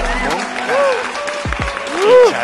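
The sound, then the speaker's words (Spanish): A short burst of steady applause from a group, with tonal voices or whistle-like calls rising and falling over the clapping. “Saludos, Aplausos para”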